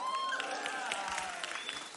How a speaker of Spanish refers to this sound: Ah, pero aquí está Camila. Me salvó la vida. Un aplauso para Camila desde antes.